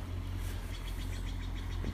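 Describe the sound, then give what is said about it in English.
The engine of a small Mercury motorboat, about 12 feet long, drones with a steady, deep rumble and a faint higher whine at Blyth Park, holding an even loudness throughout with no one speaking. “Oh, it's a it's a Mercury boat, um, Northwood.”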